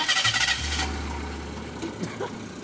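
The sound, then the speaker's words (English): An old Mercedes car engine cranks with a rapid starter whir, then catches and settles into a steady low idle rumble, with no talking. “Sounds like a, like an old Mercedes. You hear you hear the '70s.”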